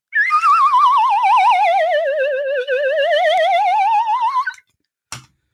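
A lotus flute (slide whistle) plays one long, continuous, warbling note that slowly glides downward and then rises again, loud and bright, followed by a brief soft knock. No one speaks.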